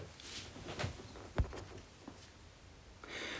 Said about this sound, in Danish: Så hvis I, kære lytter derude, hører lidt øh, trummen på taget, så er det regnen.